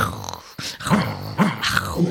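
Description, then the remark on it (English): A person imitates an animal with low, snuffly growls and grunting breaths, three or four rough pulses in quick succession, close and fairly loud. “like snuffly noises. Um, a wolf or a bear or I don't know what.”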